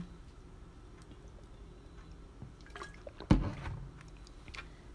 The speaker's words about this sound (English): And so, sorry, drinking water.